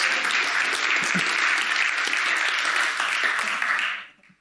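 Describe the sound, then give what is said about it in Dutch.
An audience applauds God steadily, dense clapping from many hands filling the space at a strong, even level for about four seconds before quickly fading out. “Ja, geef God een applaus.”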